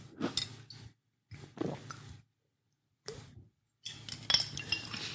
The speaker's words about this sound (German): Und ich nehme jetzt mal kurz einen Schluck Wasser. Ich habe nämlich extrem Durst aus diesem wunderbaren Glas Wasser.